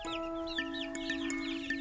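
Chicks cluck and chirp busily as they play before bedtime, a quick overlapping stream of high, rising peeps with a few lower clucks, set over a steady sustained hum that runs throughout.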